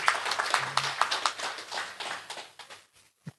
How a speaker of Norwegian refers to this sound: Ja, vi kan ta en liten applaus for Dagbladet, men vi tar heller en applaus for Frøydis Arman.